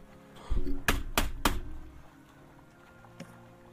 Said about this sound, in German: Als du das Zeug ja. genommen hast, klopft's auf einmal an der Tür.